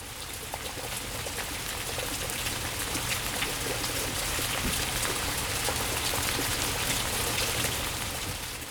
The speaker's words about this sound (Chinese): 在秋天里面，也会常常听到这样子的声音哦。你们觉得那是什么声音呢？那就是下雨的声音，The autumn shower。有的时候还会搭配一些打雷呢。